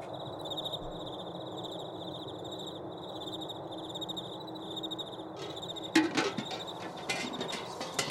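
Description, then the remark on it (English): Steady, slow chirping of cricket-like insects fills the night air over a barren wasteland late at night in a repeating high pulse, joined near the end by a few louder clattering knocks. “the only sounds to be heard in the wastes this late was the slow chirp of the crickles, the dusty cough of a wind as it worked its way over the barren landscape, and the jingling of pans”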